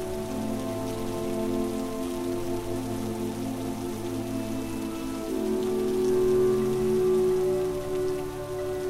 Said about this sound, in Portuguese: A chuva indica que os deuses estão aqui.